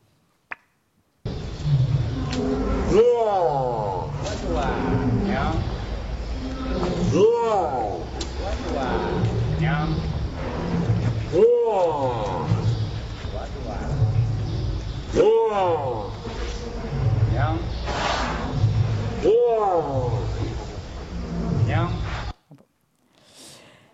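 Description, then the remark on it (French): A female elephant imitates a word spoken by her trainer, putting her trunk in her mouth to shape the sound: the man's voice and the animal's loud, voice-like copy alternate, repeating about five times at a steady rhythm over a constant low drone. “Eh bien, vous allez entendre successivement le mot prononcé par son dresseur et l'émission vocale de cet éléphant.”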